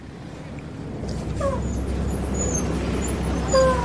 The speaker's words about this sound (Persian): وقتی اتوبوس به ایستگاه رسید خرگوش دست خواهرش رو گرفت و اون رو سوار اتوبوس کرد